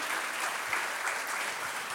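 A crowd claps steadily for two seconds, a dense, even patter of many hands with no voices standing out above it.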